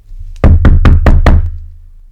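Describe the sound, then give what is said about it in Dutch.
Five firm, evenly spaced knocks on a wooden cabin door, loud, with a low hum underneath and no voices. “klopte iemand bij hem op de deur. Op de deur van de hut.”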